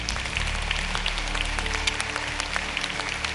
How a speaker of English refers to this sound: Come on up here. Would you give her a big round of applause? I love her.